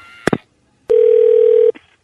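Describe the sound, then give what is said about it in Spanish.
A couple of quick clicks, then a steady telephone dial tone hums for almost a second before cutting off abruptly, with a faint click after, as someone phones the police. No one speaks. “Voy a llamar a la policía ya mismo.”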